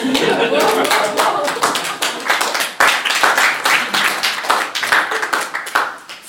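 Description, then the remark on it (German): A crowd applauds steadily for several seconds, dense overlapping hand claps forming a continuous, fairly loud wash that tapers slightly toward the end. “erhaltener Applaus.”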